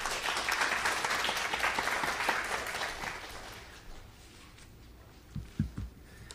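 An audience claps steadily in a broad, dense wash of applause that fades out after about four seconds, followed by a few soft thumps and quiet shuffling.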